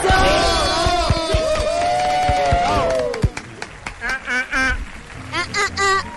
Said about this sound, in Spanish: Recibamos con un fuerte aplauso a Natalie Umaña y Alejandro Estrada.